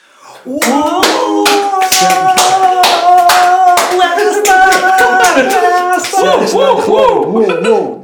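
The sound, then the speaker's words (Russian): A handful of sharp hand claps, spaced unevenly rather than a full round of applause, ring out over continuous voices that carry on loudly throughout. “Тоже хлопает, но сдел- делает это максимально сдержанно.”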